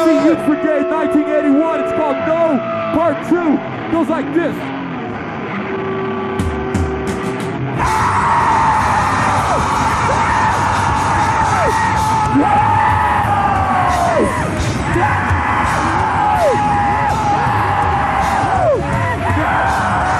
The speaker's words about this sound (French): Le premier morceau c'est punk hardcore, le deuxième c'est juste des cris dans un micro.